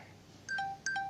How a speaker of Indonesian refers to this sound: Hmm, well itu tadi suara baterai HP gue, baterainya lemah 15%.